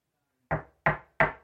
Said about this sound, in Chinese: 但是紧接着，这音频出现了沉沉的敲门声，还有他自己录的声音。